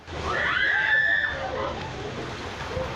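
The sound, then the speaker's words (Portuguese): Floodwater churns and sloshes steadily inside a bus, a current formed by the force of the water during heavy rains, a continuous rushing wash, while a high, panicked scream rises over it in the first second before fading into the noise. “A força da água era tão grande que uma correnteza se formou dentro de um ônibus.”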